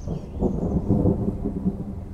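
thunder rumbling

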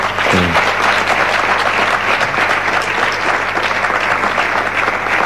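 audience applause

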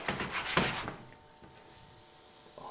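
food sizzling

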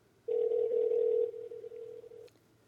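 telephone ringback tone

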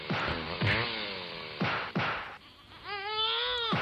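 baby crying

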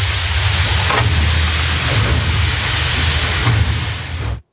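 hissing

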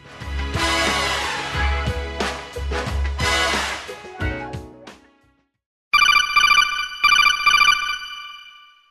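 phone ringtone ringing

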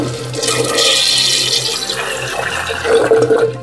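toilet flushing

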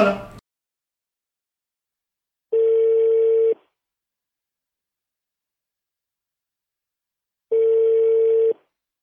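telephone dialing and ringing

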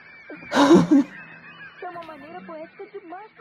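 parakeets squawking

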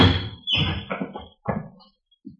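door opening and closing

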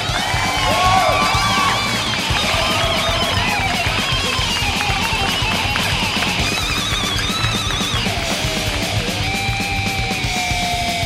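crowd cheering and applause

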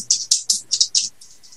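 dice being rolled

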